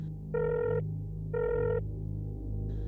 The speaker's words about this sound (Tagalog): Nang magring ang aking cellphone, agad kong sinagot.